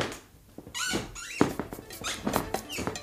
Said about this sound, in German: Mein Stuhl quietscht immer noch.